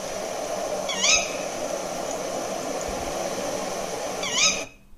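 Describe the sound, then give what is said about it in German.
Two sharp, shrill owl calls, a female tawny owl's "ke-wick," ring out a few seconds apart over a steady background hiss, each brief and clear, with no talking. “Und hier dann ist das Weibchen.”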